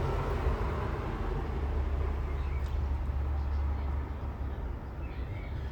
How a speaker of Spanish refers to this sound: Espero que no se escuchen mucho los coches.